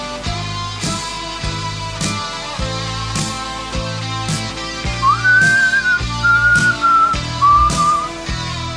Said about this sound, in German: Oh, jetzt war aber falsch gepfiffen jetzt.